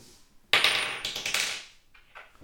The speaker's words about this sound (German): Habt ihr das gehört? Da hat gerade ein Hobbit einen Ring reingeworfen.